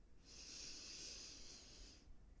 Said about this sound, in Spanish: Inhalo. Exhalo. Inhalo. Exhalo. Inhalo.